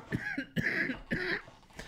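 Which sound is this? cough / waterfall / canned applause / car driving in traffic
cough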